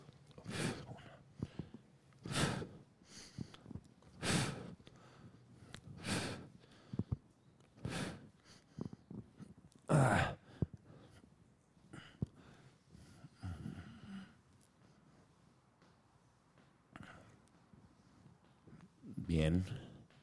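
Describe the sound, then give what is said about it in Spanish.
Deep, forceful breaths of a breathing exercise during a warm-up, repeating in a steady rhythm about every two seconds, then easing off briefly before one final strong exhale. No one speaks. “Vamos a tratar ahora de hacer la parte de la respiración, no se les olvide.”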